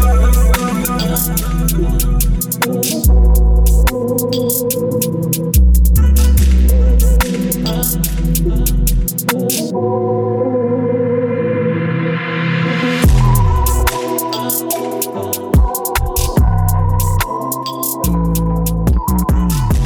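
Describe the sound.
A rap track from a new album, a featuring collaboration, plays loud, with a heavy bass line and a steady beat under a rhythmic vocal; midway the beat drops out briefly for a rising swell before kicking back in.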